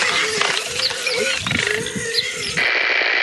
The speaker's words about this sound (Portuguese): Tem uma praga no interior de São Paulo chamado Java Porco, que é uma mistura de javali com porco